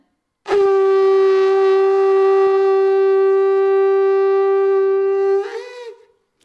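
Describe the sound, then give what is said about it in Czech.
A conch shell is blown like a horn, giving one loud, steady low tone with rich overtones that holds for about five seconds before wavering and breaking off. “To je úžasné, to mi přijde, jako když na nějaký roh mořská pana svolává své poddané”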